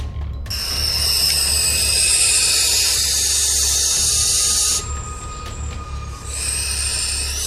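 A harsh, sustained screech like an owl's shriek rings out loudly over a low rumbling drone, breaks off briefly near the end, then returns. No one speaks.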